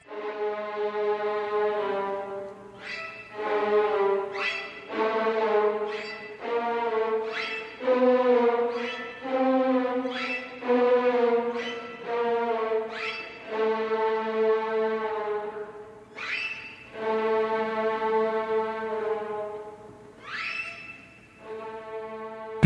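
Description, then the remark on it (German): A recording of a piece depicting donkeys from Camille Saint-Saëns's Carnival of the Animals: bowed strings play loud, rough alternating notes with upward slides, mimicking braying in an uneven, repeating pattern. No one speaks. “Das gerade gehörte Stück aus dem Karneval der Tiere von Camille Saint-Saëns gibt uns erste Anhaltspunkte.”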